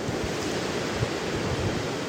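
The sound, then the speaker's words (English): A steady wash of river water lapping and flowing around a boat floating down a river on a fall day, with a soft breath of wind over the microphone and no voices. “I'm just lazily floating down a river on a beautiful fall day.”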